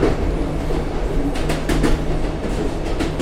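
A Northern train rolls steadily along the rails with a constant low rumble and hum, broken by a few sharp clacks from the wheels over the track joints, heard from on board.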